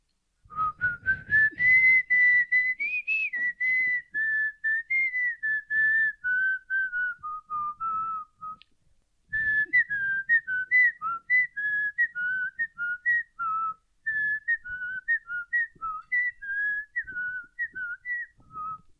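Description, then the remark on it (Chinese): A person whistles a cheerful New Year tune alone, a single clear melodic line moving in short stepped notes, with a brief pause midway before the melody resumes at a steady, moderate loudness. “那口哨吹什么呢？新年哦，来一首新年的。”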